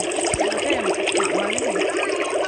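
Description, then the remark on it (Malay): Continuous water bubbling made by blowing into water, a dense stream of gurgling pops and little rising glides, steady and fairly loud throughout with no voices. “Kalau kita tiup, kalau kita tiup air kan bunyi macam tu kan.”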